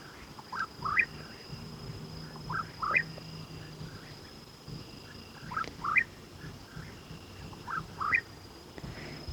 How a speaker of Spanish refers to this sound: Ese pájaro que escuchamos es un es un cucurrí y es un pájaro que solo canta de noche.